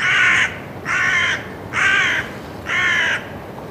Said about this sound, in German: Seitdem ich auf diese Krähen aufmerksam geworden bin, höre und sehe ich Krähen ständig und überall in der ganzen Stadt.